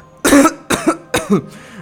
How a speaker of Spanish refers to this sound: Esa tos no me gusta para nada.